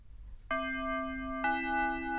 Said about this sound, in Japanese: そこで、チャイムが鳴った。